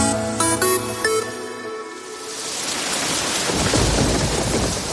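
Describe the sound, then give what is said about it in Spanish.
A brief tonal chime fades into steady, heavy rain that swells to a loud downpour, with low thunder rumbling beneath it toward the end. No voices. “¿Y si dejas de escuchar esto? Sequía. Un peligro silencioso. Hace mucha falta, pero poco llueve.”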